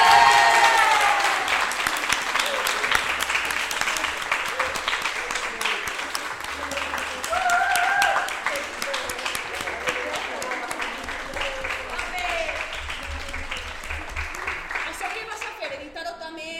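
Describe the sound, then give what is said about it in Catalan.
Steady, dense applause from a crowd fills the whole stretch, with cheering and shouting voices rising over the clapping before it thins out at the end. “Tots aplausos, ja.”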